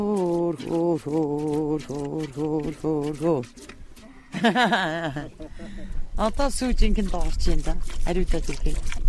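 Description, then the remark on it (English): Rhythmic squirts of yak milk stream steadily into a pail during milking, while a woman sings a slow, soothing lullaby-like tune to the yak and a voice briefly speaks. “The song simply relaxes the yak so she'll let her milk down.”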